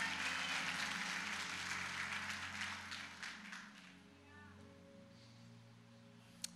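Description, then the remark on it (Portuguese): A crowd applauds with dense, steady clapping that fades out after about three seconds, leaving a low hum and faint sustained tones. “Pode aplaudir, ele só vai investir naquele que derrama a vida para ele.”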